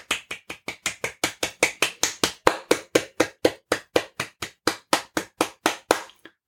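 A single person claps steadily, about two dozen sharp, evenly spaced claps at a brisk pace, bright and crisp, ending with a softer final clap. No one speaks.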